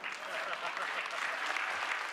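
audience applauding

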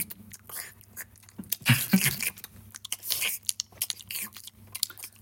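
lip smacking

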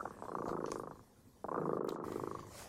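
cat purring

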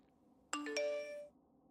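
phone message notification chime

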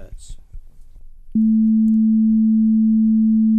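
high-pitched hearing test tone

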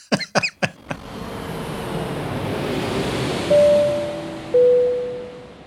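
toilet flushing

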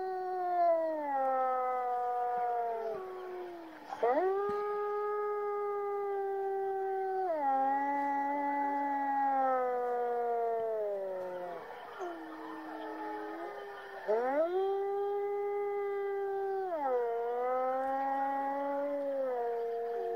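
wolf howling

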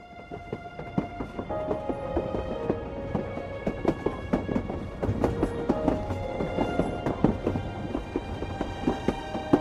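rain with thunder

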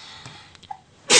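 sneeze

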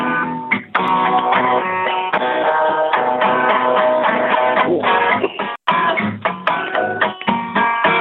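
song playing on radio

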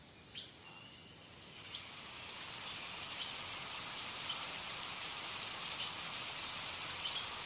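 rain falling

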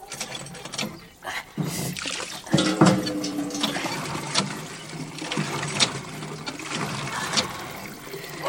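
water flowing

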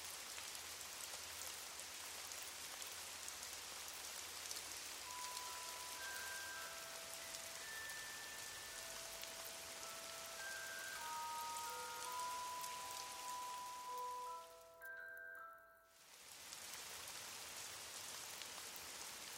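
rain falling

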